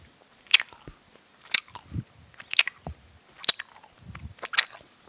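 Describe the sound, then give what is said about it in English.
Close-up wet chewing of sticky candy, with sharp smacking clicks about once a second and soft low mouth sounds between them, loud and right at the microphone with no talking. “I'm really chewing close.”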